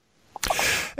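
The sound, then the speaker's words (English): A single loud sneeze from a caller phoning in to a radio talk show: a short voiced intake, then an explosive, hissing burst of breath lasting about half a second before it trails off. “Hello, bless you.”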